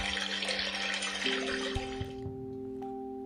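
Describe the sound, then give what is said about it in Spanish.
Water is scooped up from a lake with a rushing splash that fades out after about two seconds, leaving a faint steady hum and a few light drips. “Entonces, recogió un poco de agua”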